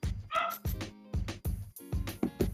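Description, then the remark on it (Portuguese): Dogs bark in a rapid, uneven string of about seven sharp barks, with a few higher yipping notes mixed in and no talking. “E os cachorros chegaram.”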